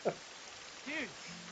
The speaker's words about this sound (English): Uh oh, it's raining.